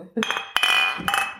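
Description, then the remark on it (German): Two quick clinks of glasses touching in a toast, each leaving a bright, sustained ring that lingers between and after the strikes, with faint voices in the background. “Zum Wohl. Zum Wohl.”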